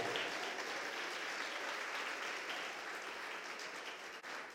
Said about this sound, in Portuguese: Você pode aplaudir o nome do Deus Eterno?